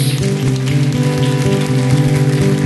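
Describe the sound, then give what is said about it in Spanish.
Loud, dense applause from a large audience, given as a strong round of applause to God, fills the whole stretch, a steady crackling roar with sustained organ-like chords humming beneath it. “Da un aplauso fuerte a nuestro Dios.”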